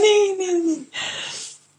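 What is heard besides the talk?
dog whining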